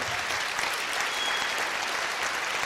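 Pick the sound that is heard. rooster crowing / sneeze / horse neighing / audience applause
audience applause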